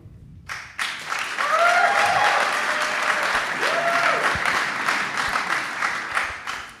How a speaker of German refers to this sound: Wir machen jetzt mal so einen kleinen Jubel-Contest. Wer ist für Jonas Wingegar?